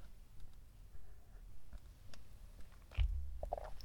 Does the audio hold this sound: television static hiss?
no